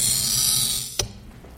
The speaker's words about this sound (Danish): Men her har vi et stykke spejl, og det kan vi skære i. Det lyder nogenlunde sådan her, når vi ringer det.